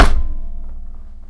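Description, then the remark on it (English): A single heavy slam of a hand on a desk: a sharp, loud thump that fades into a low, hollow ringing over about a second, with no voices. “You like slammed your desk and just like cut.”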